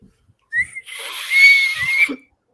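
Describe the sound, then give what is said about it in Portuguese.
Someone imitates a referee's final whistle at the end of a game with their mouth: one long, breathy, shrill blast lasting about a second and a half, heavy with airy hiss, otherwise alone. “Acabou o jogo. Faz o barulho da pita aí, pessoal.”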